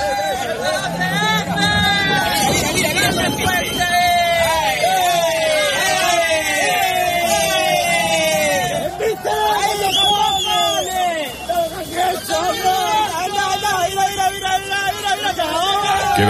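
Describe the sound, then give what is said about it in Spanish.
A loud group of men shouts and cheers continuously, many voices whooping and jeering over one another in a dense, rowdy babble that keeps rising and falling throughout, as a narco speedboat rams a Guardia Civil boat. “Eran los tíos que estaban dando vítores.”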